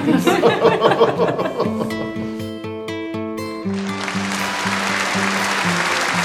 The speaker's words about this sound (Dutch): Dat is nou op zich goeie regen. Het is geen regen, het is ah. applaus. Is dat? Ah, ah ja, oh nee, ik dacht dat het regen was. Een, een kenwijsje.